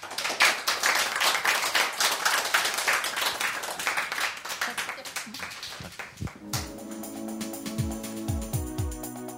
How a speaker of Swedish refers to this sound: ger henne en stor applåd tycker jag.